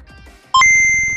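Electronic computer-style beeps from a calculating computer: a quick rising blip followed by a sustained high synthetic tone over a pulsing low rhythmic hum, loud, with no talking.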